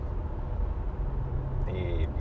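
Steady, loud low rumble of engine and road noise inside a moving car, continuous throughout, with a brief higher tonal sound near the end.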